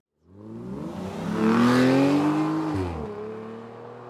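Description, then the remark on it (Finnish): A sports car engine in a sport driving mode, exhaust flaps open, revs up once, its deep growl climbing in pitch and loudness, then abruptly drops back and settles into a steady idle. Loud, with no talking. “ne on aika hiljaisia ja sitten kun laitetaan joku sportti tai dynamiikki tai, tai race tai mikä tahansa, niin sitten sieltä alkaa sitä äänimaailmaa tulemaan.”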